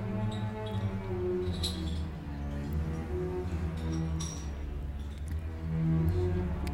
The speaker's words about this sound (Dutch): Nou, en dan hoor je in de lage strijkers.